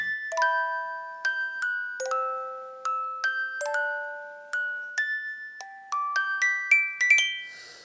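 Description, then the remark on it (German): An alarm clock in a hotel room plays a bright, chiming electronic melody at 5:35 in the morning, a quick run of bell-like notes that climbs higher toward the end and stops after about eight seconds, with no voices. “Der Wecker hat gerade geklingelt.”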